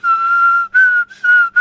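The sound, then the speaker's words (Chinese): A steady, sustained whistle on one high tone, broken into four blown phrases with brief gaps between them, alternating as the whistler breathes out and then in. No one speaks. “我我 你看， 学过 你看啊 吹口哨， 这是呼气，吸气，”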